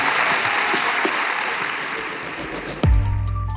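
A live audience claps steadily in a dense, even wash of applause for nearly three seconds, then tonal music cuts in abruptly and carries the final moments.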